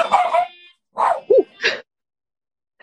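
A dog barks several times in short, sharp bursts, fairly close, with a brief whiny yip mixed in and pauses of silence between the barks.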